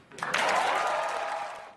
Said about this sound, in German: Jubel im Publikum.